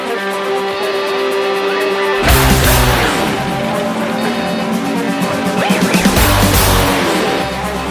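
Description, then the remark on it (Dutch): A loud, dense band track plays with no talking: a sustained synth-like intro gives way after about two seconds to a heavy full band with pounding low drums and distorted guitars. “mocht jij nu denken, wat, wat, jullie hebben het al heel lang over steek nummer 1, maar ik heb geen flauw idee hoe dat klinkt.”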